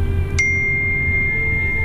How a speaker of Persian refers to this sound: این گوشه من امروز بیش فعال و موبایلم همینجوری داره سر صدا میکنه